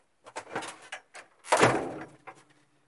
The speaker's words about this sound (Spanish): Hay ruido de llaves y de apertura y cierre de la puerta.